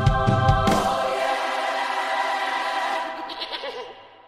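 A goat lets out one long, loud, wavering bleat, its quavering cry holding for a few seconds before fading away. No one speaks.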